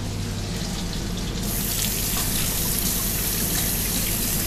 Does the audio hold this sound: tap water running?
yes